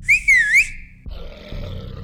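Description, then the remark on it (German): A bloodhound-repelling horn, used against two huge dogs, gives one shrill, wavering blast lasting about a second, then cuts off, leaving a low rumbling noise behind. “Oh, Hey, wäre denn gut, dass du immer diese Bluthund-Abwehrtröte dabei hast.”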